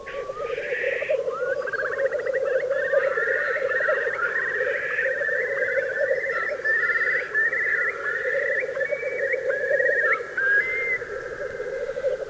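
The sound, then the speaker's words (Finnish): A Eurasian curlew's song of rising whistles that break into a long bubbling, trilling series, heard over the continuous low cooing drone of a lekking black grouse flock, at which the directional microphones were aimed. No voices. “Tämänkin kuovin ääni syntyi aivan vahingossa, kun suuntamikrofonit olivat kohti puputtavaa teeriparvea.”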